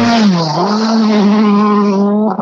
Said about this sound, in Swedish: Går in i högen där och ger på gas. Den låter ju fint ja. den här BMWn.